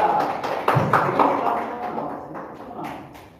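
An audience gives a round of applause for a participant, with dense, overlapping claps that swell at the start and gradually thin out and fade over a few seconds, with no talking.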